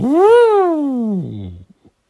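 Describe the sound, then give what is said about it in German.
A person vocally imitates the toot a toy figure's blow-in valve would make, like a toy horn: one loud, buzzy toot that rises, then sags down in pitch over about a second and a half before trailing off into a couple of faint little sputters. “Also so ist wie bei einer Tröte.”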